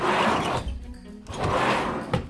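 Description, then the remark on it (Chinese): A cabinet drawer slides open with two rough, scraping runs of wood on wood, ending in a soft thump as it stops. Fairly loud, with no voices. “哦，对了， 老女巫突然想起什么似的，拉开了柜子的抽屉”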